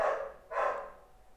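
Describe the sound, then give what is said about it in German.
Two quick dog barks, one right after the other, moderately loud, with no one talking over them. “Hund bellt”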